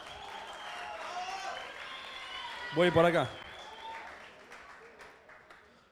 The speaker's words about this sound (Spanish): A ver, ¿vamos allá? Muy bien. Un aplauso acá para el amigo que se anima.